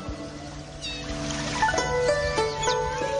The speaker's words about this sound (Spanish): Oh, cómo suena el agua a caer contra el vidrio.